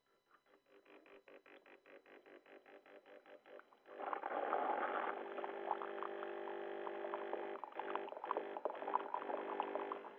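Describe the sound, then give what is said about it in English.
An instant hot water dispenser, a heat-on-demand unit that boils one cup of water at a time, starts with a quick run of rhythmic pulsing clicks that build in loudness, then gives way to a steady hissing and gurgling rush as the water heats and pours. “It's called a quick cup. It's heat on demand.”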